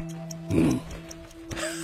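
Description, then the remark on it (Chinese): A watch given by Li Dazhao ticks faintly in a steady, even rhythm of light, crisp clicks over a low constant hum, with a brief soft breathy rustle partway through. “表真滴答作响，我把这声音当作是先生对我的鞭策。”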